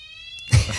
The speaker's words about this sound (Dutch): Horen we een alarm? Live een brandalarm. Het luchtalarm, mensen. Daar gaan we dan. Ah, dat was het alarm.